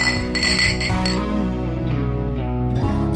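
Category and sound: household object, beer glasses clinking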